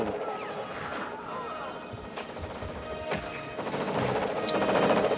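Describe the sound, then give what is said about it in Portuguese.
Gunfire from a war movie scene, sharp shots cracking repeatedly over a dense, chaotic soundtrack of crashes and noise, growing louder toward the end, with faint voices mixed in. “Eita, agora virou tem... filme de guerra mesmo. É, cara, tiro, é, o Rambo mano.”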